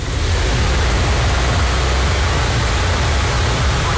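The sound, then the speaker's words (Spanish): A heavy rain downpour in Villa González roars steadily, a dense, unbroken hiss across the whole range with a deep rumble underneath, loud and constant for the full few seconds with no voices. “Mire qué aguacero.”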